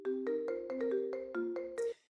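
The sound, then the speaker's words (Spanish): A phone call ringing tone plays as a quick run of electronic melodic notes, about eight bright beeps over two seconds, clear, with no voices. “Vamos a ver si nos coge el teléfono.”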